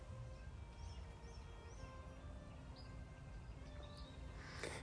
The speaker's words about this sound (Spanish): ¿Qué hay aquí fuera? Y te cuento. No hay mucho. Bueno, hay mucho, pero no se ve ni se oye tanto. ¿Escuchas? Hay unos pajaritos.